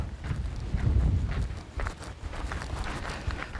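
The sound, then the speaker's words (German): Wind gusts outdoors in the north, buffeting the microphone with a deep, uneven rumble and rushing noise that swells and eases throughout, with a few faint thuds like footsteps mixed in. “Nicht erschrecken, hier ist Norden, hier windet es.”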